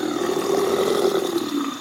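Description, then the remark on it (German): A male crocodile's courtship call while producing water bubbles, a steady low rumbling growl with a breathy, hissing edge, held without a break for about two seconds, with no voices. “geben fauchende Geräusche von sich und produzieren Wasserblasen. Eine Art Liebeslied entsteht.”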